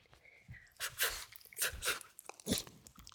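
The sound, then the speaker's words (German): A dog chews and crunches right up against the microphone for a dog ASMR recording, with a series of loud, wet bites and snapping crunches in an uneven rhythm, plus soft breathy sounds between them. “Hunde ASMR.”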